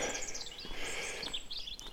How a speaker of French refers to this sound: Mon préféré, que tu dis souvent le matin, les oiseaux gazouillent. Et c'est vrai que là aussi ils gazouillent.